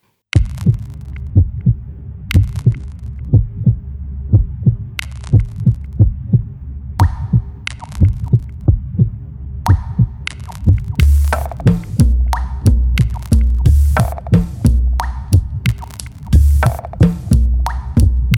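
A song intro built on a steady, heartbeat-like low thump, joined partway through by sharper, brighter percussive hits that grow busier and louder toward the end, with no voices.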